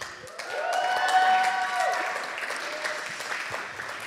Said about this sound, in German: Genau, ich möchte, dass ihr jetzt ausrastet im Chat, macht Feuer und Applaus und seid mal richtig laut.